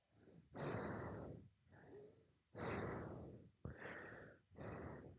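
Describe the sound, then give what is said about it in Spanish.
A person imitates heavy, loud breathing: five harsh, rasping breaths in a steady in-and-out rhythm with brief pauses between them and no talking. “Así, me estaba haciendo así, estaba respirando muy fuerte.”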